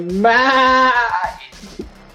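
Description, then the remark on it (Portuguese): A person imitates a goat, letting out one drawn-out, wavering bleat that lasts about a second, fairly loud, then trails off into a few soft vocal sounds. “Não é a minha cabra.”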